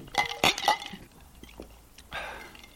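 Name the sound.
glasses clinking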